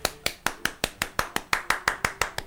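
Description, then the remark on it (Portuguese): Steady, fast hand clapping, about fourteen sharp claps in quick even rhythm, fairly loud with no voices over it. “De repente escutou que todo mundo começou a se levantar, ele acordou assim, começou a bater palmas.”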